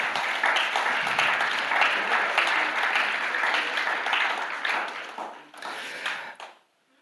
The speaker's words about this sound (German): Vielen Dank, Welcome-Team, für euren Dienst, den er jeden Sonntag auch tut, mit einem Lächeln und mit Freude. Vielen, vielen Dank. Und jetzt ist Zeit, ja, gebt, lasst uns mal einen Applaus geben.